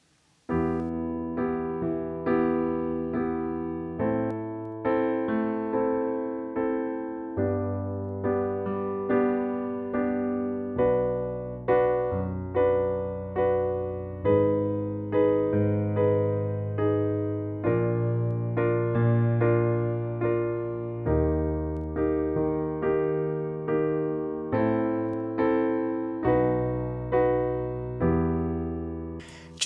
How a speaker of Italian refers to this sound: Eh, perché eh, se voi ascoltate solamente la parte degli accordi, suona così